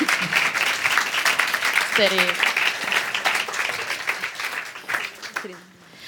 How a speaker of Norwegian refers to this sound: Tusen takk for at dere kom. Da bytter vi panel. Gi dem applaus.